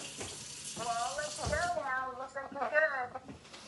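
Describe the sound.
A faucet runs steadily as someone gets water for another person, its continuous hiss of flowing water filling the few seconds while a person's voice murmurs over it.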